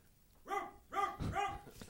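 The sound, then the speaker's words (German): A dog barks three times in quick succession, the short yelping barks sounding distant and fairly quiet against a still background. “In der Ferne bellt ein Hund.”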